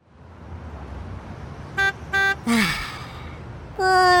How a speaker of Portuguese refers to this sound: Uma vez até vi um pombo a descansar no meio da estrada. Um autocarro queria passar na estrada e teve de buzinar.